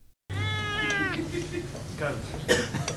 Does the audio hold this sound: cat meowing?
yes